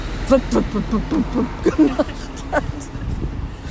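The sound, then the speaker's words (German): A voice imitates a car engine sputtering and dying in the middle of the B 31 road on the way to Friedrichshafen, with choppy, uneven vocal bursts that stutter irregularly for a few seconds before fading out. “Ich war dann gerade so auf dem Weg nach Friedrichshafen, als mein Auto mitten auf der B, B 31 plötzlich nur so”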